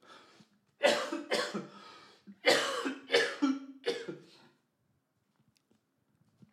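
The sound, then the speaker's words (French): A person coughs several times in a loud fit of harsh bursts, two clusters separated by a brief pause, then it trails off into near silence. “Pardon, je vais tousser.”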